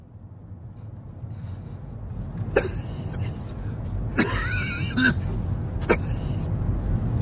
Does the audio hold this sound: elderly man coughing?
yes